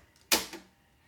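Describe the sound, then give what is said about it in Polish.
A tape deck mechanism clunks as stop is pressed: one sharp mechanical thunk followed quickly by a softer second knock, then quiet. “Nacisnę stop.”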